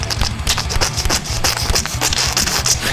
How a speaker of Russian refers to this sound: Если вы не поняли, что это за чавкающие звуки, то это был один из способов, как сделать эмоджи-фильм лучше.